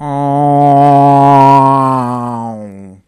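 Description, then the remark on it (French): A single voice makes a loud, steady low drone for about three seconds, mimicking an airplane passing low over a house under an air corridor, heard from its garden, then slides slightly down and trails off. “là, je regarde, couloir aérien, mais de fou.”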